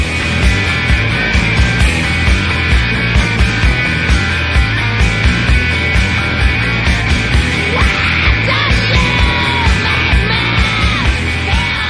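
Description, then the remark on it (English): Loud, dense grunge rock with distorted guitars and pounding drums, while a female voice shrieks and wails in a high, piercing register over the steady beat. “She just sounds like a witch at the top of a tower, like ready to sic her like flying monkeys on you.”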